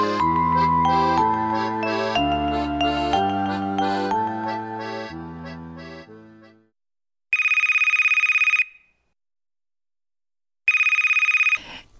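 A short melodic jingle of descending notes fades out, then a telephone rings twice in steady electronic bursts separated by a pause, loud with no voices.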